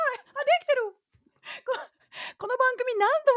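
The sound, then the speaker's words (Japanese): A light, high falsetto head voice sings several short gliding notes in quick bursts, broken by a couple of breathy intakes. It is close and fairly loud, with no clear words. “この今上でさ鳴ってたさこの軽い軽快な音まあ、これ裏声と言われる、えー、ものヘッドボイスとも言いますけれどもその音を出してます。”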